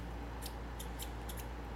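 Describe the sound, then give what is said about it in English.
A handful of small, sharp clicks in an uneven rhythm as buttons are pressed while scrolling down to the bottom of a charity auction file, fairly quiet over a steady low background hum with no voices. “One second, I've got the auction file here, and he says as he's clicking buttons, uh, do, do, do, pull up all the way down to the bottom.”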